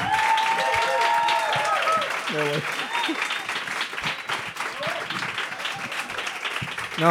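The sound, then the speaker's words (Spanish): Sustained audience applause welcoming Daniel Guzmán to a Sunday afternoon show, a dense wash of many hands clapping at steady volume throughout, with cheers and voices rising briefly over the noise. “No te han aplaudido tanto un domingo por la tarde, Daniel.”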